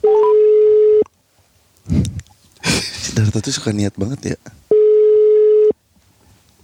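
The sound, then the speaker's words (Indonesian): A phone's ringback tone sounds twice, each a loud, steady one-second buzz separated by a long pause, while people chat in the gap between the rings. “telepon siapa toh?”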